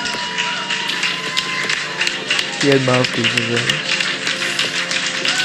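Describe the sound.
A crowd claps steadily in a dense, crackling wash of applause that runs the whole time, with a man's voice speaking briefly over it.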